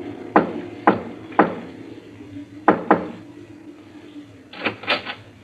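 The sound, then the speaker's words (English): Sharp knocks on the wooden door of a villa on Hampstead Heath at night, three evenly spaced raps, a short pause, then two more, followed by a brief rattling sound near the end. Fairly loud, with no talking. “Then he stepped briskly to the door of the villa that lay before him and.”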